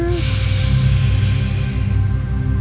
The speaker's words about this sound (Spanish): Entonces, desde casa vamos a empezar a inhalar, inflando el abdomen como globo y exhalando hacia adentro. Una vez más.